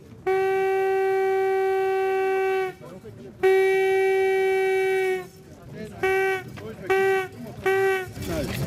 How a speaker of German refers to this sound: Die allererste Sprengung in den Felsen. Mit einem alten Signalhorn warnt der Sprengmeister die Gäste und kündet die Explosion an.